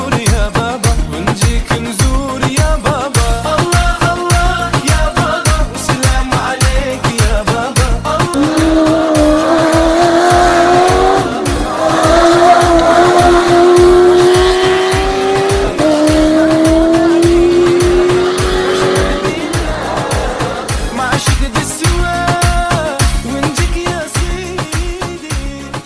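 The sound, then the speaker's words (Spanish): Loud race car engines roar and rev continuously, with rising whining pitches and tires squealing, a dense, sustained motorsport din with no voices. “Os espero a todos para empezar este nuevo año con el rugido de los motores.”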